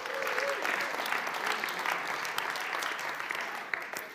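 Steady applause from a group fills the whole clip, a dense crackle of many hands clapping at an even loudness with a few sharper claps standing out.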